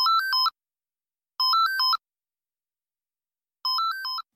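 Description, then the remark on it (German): A landline telephone rings with three short electronic warbling trills, evenly spaced with about a second of silence between them, clear with no voices. “Ja, kein Wunder, denn die Deutschen greifen viel häufiger zum Festnetztelefon als noch vor Corona.”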